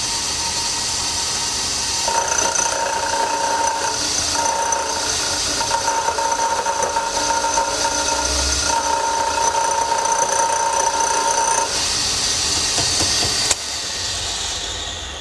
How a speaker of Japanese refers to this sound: その時に使う道具がこちらフライス板名前ついております井上くん僕らはこれを井上くんと呼んでおりますまあ、どうやって使うかというと、まあ、こういうふうに、え金属これアルミニウムですがを噛みましてこうやって削っていくわけですね